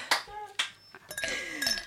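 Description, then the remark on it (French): Two bright glass clinks ring out at an aperitif, a half-second apart, followed by a steady fizzing hiss of beer being poured and foaming up in a glass. “Vous avez entendu la bière qui mousse.”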